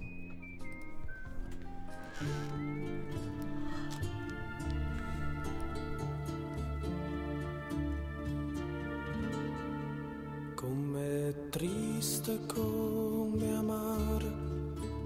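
An instrumental song intro plays steadily at full volume, sustained harmonic tones building into a busier, brighter passage with sharper percussive accents in the final few seconds, no singing yet.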